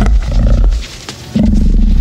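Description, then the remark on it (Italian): A large dog, a 60 kg Maremma sheepdog, growls deeply, a loud, rumbling snarl that breaks off briefly and then surges back even stronger, with no one talking over it. “Ok, chi ha portato il cane?”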